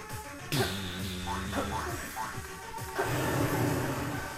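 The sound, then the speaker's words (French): A video game dragon roars in a deep, rumbling growl with swooping tonal cries, opening and closing with loud crashing bursts over a steady backdrop, no voices. “Oula, ça c'est un bruit de dragon.”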